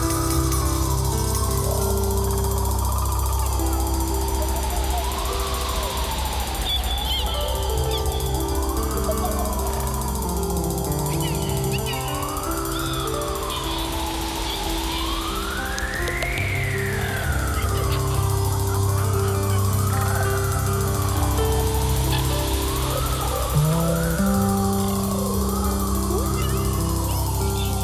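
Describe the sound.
A drummer imitates bird sounds with his mouth and throat: continuous buzzing tones with swooping, siren-like pitch glides rising and falling over a steady droning layer, loud throughout with no talking.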